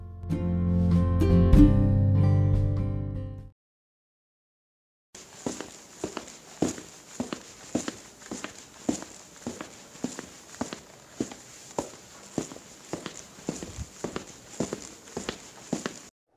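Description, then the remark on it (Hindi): A tonal musical flourish plays briefly, then after a pause a long series of regular footsteps sounds, steady and rhythmic as a person climbs the stairs instead of taking the lift, over a constant background hiss. “फिर मैं लिफ्ट के दरवाजे के पास गया तभी मुझे ख्याल आया कि ऐसे कोरोना के माहौल में लिफ्ट से जाने से बेहतर है मैं सीढ़ियों से ही जाऊं”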